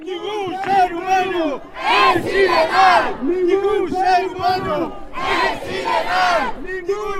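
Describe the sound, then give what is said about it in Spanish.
A large crowd chants in loud, rhythmic unison at a Sunday demonstration in a Spanish city, voices rising and falling in repeated slogan-like bursts, full with no pauses between the shouted phrases. “El domingo distintas ciudades españolas convocaron manifestaciones en repulsa de lo ocurrido.”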